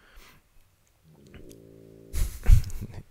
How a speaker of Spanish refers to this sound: roncando durísimo.